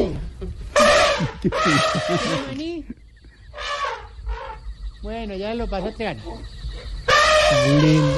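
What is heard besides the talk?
animal sounds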